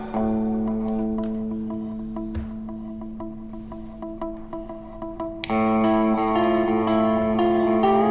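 A distorted electric guitar plays a droning, reverberant riff that builds, then about two-thirds through jumps abruptly louder and brighter, climbing in intensity with dense, sustained overdriven tones. No voices are heard.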